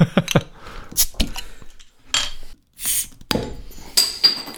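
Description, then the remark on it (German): Metallic clinks and knocks of a Bockbier bottle cap being levered off with a lighter, several short sharp taps followed by a bright pop, with glassy rattles in between. “Ah, machst du das mit dem Feuerzeug?”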